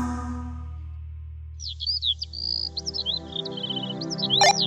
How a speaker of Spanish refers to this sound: Buenos días. Si escuchan así como un ruido al fondo, es el mar si escuchan los pajaritos, estoy en la playa. Gracias a Dios, por fin pude venir a México